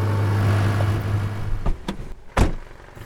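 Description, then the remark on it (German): A car engine hums low and steady for about a second and a half while driving with a spotlight on, looking for anteaters. It then cuts out, followed by a few sharp clunks like a car door. No one speaks. “Ich fahre Auto, aber bisher auch jetzt noch nichts.”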